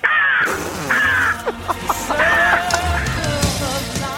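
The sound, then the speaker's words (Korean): A woman in her early thirties mimics a crow on Park Myung-soo's Radio Show impression segment, giving harsh, nasal caws in a loud burst: two long drawn calls followed by a series of shorter, choppy squawks. “30대 초반의 여성분이 까마귀 소리 들어보겠습니다.”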